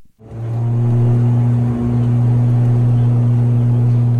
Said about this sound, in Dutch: En wij gingen met de pers in een ATR 72 van Citylink. heb ik nog even geluidjes geluidje van opgenomen.